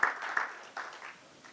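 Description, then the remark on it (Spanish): A church audience applauds the Lord, a soft, diffuse wash of many hands clapping with a few slightly louder bursts, fading gradually as the clapping dies down. “Démosle un aplauso al Señor si usted lo quiere hacer.”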